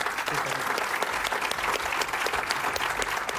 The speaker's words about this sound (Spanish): Aplausos durante más de medio minuto para el director de Día atrás haber hecho ese alegato en Madrid inesperado durante la presentación de parte de la cartelera del festival en septiembre.